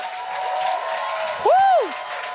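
An audience applauds to welcome the first performer of the evening, in a steady, dense wash of clapping, and a single loud whistle rises and falls over the crowd near the end.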